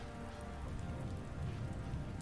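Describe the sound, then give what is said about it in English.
Steady, dense rain pattering on a surface, a constant hiss of drops with a low rumbling wash underneath, fairly loud, with no voices. “It was raining. The kind of rain that you only saw in movies, back when there were movies.”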